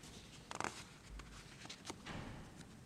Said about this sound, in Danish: Lille knas med papirerne her.